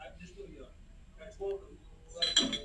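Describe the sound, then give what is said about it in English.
Dishes clink together in a sink as a father and son wash them, with a cluster of bright clatters near the end over low background voices talking indistinctly. “I hear dishes too. He, he's having fall for son time, washing the dishes together”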